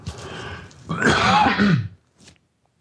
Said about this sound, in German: Moment, ich muss mal gerade husten.